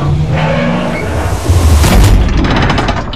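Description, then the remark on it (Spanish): An engineer outside the rocket shuts a heavy rocket access hatch beside Neil after he gives a thumbs-up. It closes with a deep, booming metallic thud over a continuous low rumble, followed by a brief rattling clatter as it seals. No one speaks. “Junto a Neil, otro ingeniero se prepara para cerrar su puerta. Mira a Neil. Él levanta el pulgar. El ingeniero cierra el acceso.”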